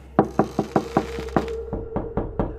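A steady series of sharp knocks on a wooden door, about a dozen raps in quick rhythm, moderately loud with no voices.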